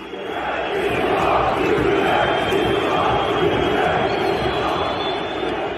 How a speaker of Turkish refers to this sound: Herkes bu soruların cevabını beklerken Beşiktaş tribünlerindeki sessizliği hükümet istifa sesleri dağıttı.